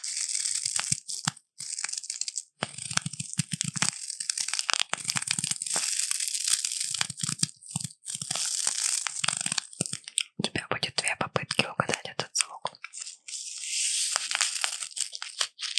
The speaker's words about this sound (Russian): Но ты ешь что-то из пачки, судя по шелесту. Чипсы. Да, хорошо, пойдет с пивком. Чипсы очень звучные.